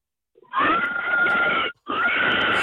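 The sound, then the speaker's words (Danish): A pig squeals loudly in two long, shrill bursts separated by a brief pause, the cries sustained and piercing with a harsh, strained quality. “Gris!”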